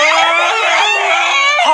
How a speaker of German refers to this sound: Das ist der medizinische Notstandalarm. Der Feueralarm ist eine Oktave höher.